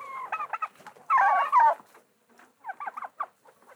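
Chickens cluck in short, bunched bursts, with a louder, busier stretch of overlapping clucks in the middle before quieter clucking resumes. No one is talking.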